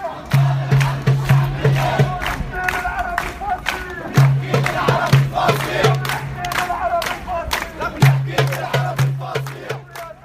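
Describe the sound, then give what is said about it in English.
A derbuka hand drum beats a quick, steady rhythm amid a noisy outdoor crowd at a demonstration, answered by high trilling ululation (zagrita) and shouts rising among the people, returning in repeated waves. “and then the derbuka was answered by a ululation.”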